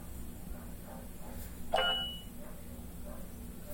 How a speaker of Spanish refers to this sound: Ah, chinga, me están llegando muchos WhatsApp, eh, a ver.